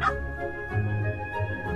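A dalmatian barks in two or three short, mid-pitched bursts at moderate loudness, with a steady humming tone running underneath; nobody speaks.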